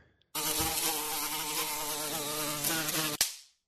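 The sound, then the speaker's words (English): A housefly sound effect: a fly buzzes steadily and loudly for about three seconds, a dense droning hum with wavering pitch, then cuts off abruptly with a brief tail. “Fly on the wall. You see, I did all these sound effects.”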